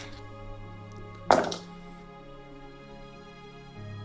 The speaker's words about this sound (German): Ich werde aber nochmal drei Würfel neu würfeln.